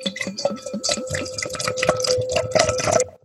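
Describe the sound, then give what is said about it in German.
Beer pours steadily into a glass for about three seconds, with a bubbly, gurgling fizz and a faint rising ringing tone as it fills. “Jetzt schenke ich es ein.”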